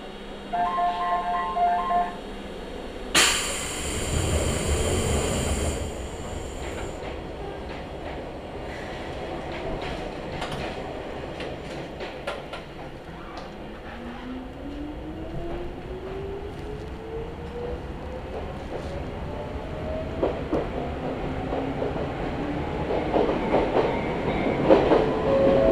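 An Izuhakone Railway Daiyūzan Line electric commuter train pulls away from Sagami-Numata Station with a brief door chime and hiss, then its motor whine climbs steadily in pitch as it accelerates toward Iidaoka, joined by rhythmic wheel clatter and a continuous rumble.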